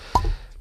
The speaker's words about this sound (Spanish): Ha sonado ahí. Descorchando la botella